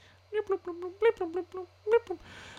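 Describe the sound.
A voice hums a rhythmic series of short, harmonic tones, about nine pulses in quick succession with a brief pause, imitating the humming signal of bounty hunters' trackers going off, clear.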